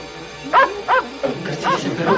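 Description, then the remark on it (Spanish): A dog barks about five times in a steady series, the barks loud, with a faint background hiss and no talking. “¡Perro maldito, qué susto!”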